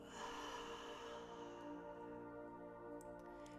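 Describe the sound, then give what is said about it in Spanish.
A single soft, drawn-out exhale through the mouth during a guided breathing exercise fades over the first second and a half, set against a steady, quiet musical drone. “Y ahora, poco a poco, empiezas a respirar, inhalando por la nariz y exhalando por la boca haciendo este sonido.”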